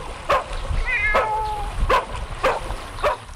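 A dog barks five times in an even, steady rhythm, while a cat lets out a drawn-out meow between the first barks. No talking.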